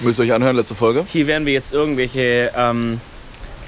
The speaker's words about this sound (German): Ihr hört wahrscheinlich Wind die ganze Zeit, so ein leichtes Rauschen im Hintergrund. Das mhm. ist nicht die Audioqualität, sondern eine schöne späte Sommerbrise, die uns hier um die Ohren weht.